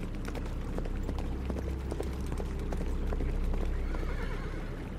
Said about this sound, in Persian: فکر میکردم خواب و خیالاتی هم شدم چون هی صدای یه گله هست رو میشنیدم ولی تا چش کار میکرد چیزی نمیدیدیم